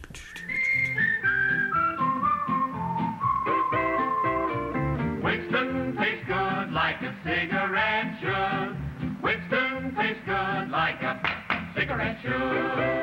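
Strange electronic tones from early electronic music for short radio commercials: a whistle-like pitch slides steadily downward, then gives way to rapid, rhythmic bursts of buzzy synthetic notes that pulse on without any voices.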